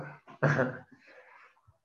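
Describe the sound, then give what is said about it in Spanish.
A single sneeze: a few short catching breaths, then one loud explosive burst that trails off into a softer breathy tail and a small final sound. “Salud.”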